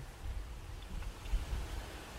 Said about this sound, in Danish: Så det, det blæser helt vildt.